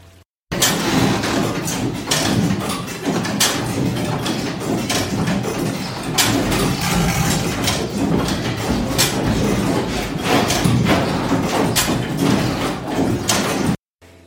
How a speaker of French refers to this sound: parce qu'on voit tout, tous les mécanismes, toutes les horloges, on entend énormément de, bruit à la fois quand il y a les sonneries mais tout simplement le, fonctionnement et je vais, vous en mettre un petit extrait.